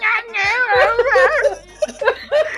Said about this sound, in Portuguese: Caralho, o gato tá tentando falar, velho. Ele tá realmente se esforçando, né, cara? Tá todo lá.